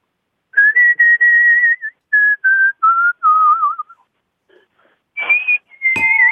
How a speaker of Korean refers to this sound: 노래 중에 휘파람 구절 들어볼게요.